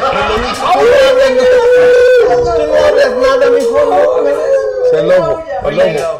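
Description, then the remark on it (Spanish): A wolf howls loudly, one long continuous cry that holds a steady pitch, wavers slightly, then dips and breaks into shorter rising notes toward the end. “ese es el lobito. Ese es el lobo.”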